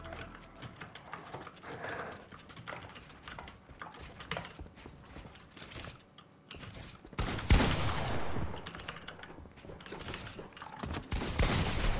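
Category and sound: sound effect, video game gunfire bursts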